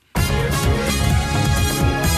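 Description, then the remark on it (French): A loud, bright burst of upbeat TV quiz show theme music kicks in abruptly after a brief silence, with punchy rhythmic brass and percussion, playing on steadily. “Et puis, de la culture générale, comme vous l'aimez, pour euh, terminer ce journal, vous reconnaissez forcément cette musique”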